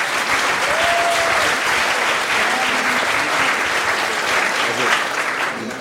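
Steady, dense applause from an audience, many hands clapping at a sustained loud level for several seconds, with a faint whistle-like tone briefly audible early on.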